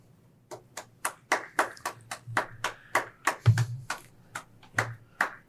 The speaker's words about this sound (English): We, we always appreciate it. Yeah, we always appreciate that loud, loud long clap.